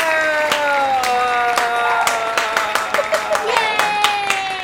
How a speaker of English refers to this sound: Everybody, throw your hands up Give a big round of applause